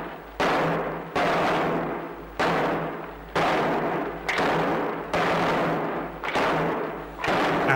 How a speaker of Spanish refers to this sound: básicamente es, están llamando a la puerta de una iglesia para comenzar una procesión del rico. Eh, estamos hablando de amanecer en Puerta Oscura.